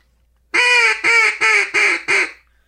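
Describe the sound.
A duck call blown in five loud, evenly spaced quacking bursts, each a raspy, harmonic-rich honk mimicking a mallard, clear with no talking.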